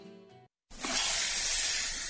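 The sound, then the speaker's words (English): A brief harmonic tone and a moment of silence give way to a loud, steady hiss from an RV vent pipe as the RV's freshwater tank overflows into its black tank, which backs up into the vent pipe, continuing without break to the end. “That's the Sullivans' RV freshwater tank overflowing into their black one, which is backing into their vent pipe”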